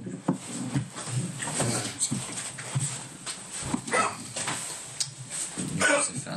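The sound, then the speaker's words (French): A sick dog whimpers and whines in a string of strained, uneven noises, fairly loud, with a rough, breathy background and faint voices mixed in. “C'est le chien qui est malade.”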